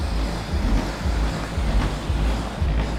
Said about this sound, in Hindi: एक मिनट गाड़ी जा रही है